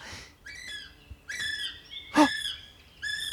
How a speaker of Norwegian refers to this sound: Hører du det, Fantoranger? Ja. Det er en fugl som kvitrer litt. Og se! Der er den.